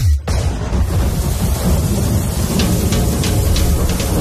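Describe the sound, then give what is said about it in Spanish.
A heavy thunderstorm with steady, loud rain pouring down and a deep, continuous rumble of thunder underneath, broken by a few brief brighter splashes or cracks toward the end. No one speaks. “¿Cuándo fue la última vez que no llovió en un carnaval de San Pedro Sula?”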